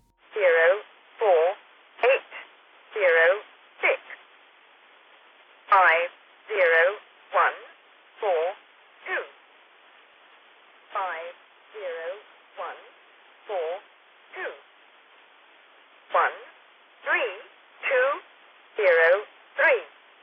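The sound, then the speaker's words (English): A shortwave number station broadcast that plays a folk song: a thin, radio-filtered voice calls out short syllables in a steady, mechanical rhythm, each burst separated by brief gaps of quiet static. “Its broadcast is the same format as the Lincolnshire Poacher, but instead it plays a different folk song called Cherry Ripe”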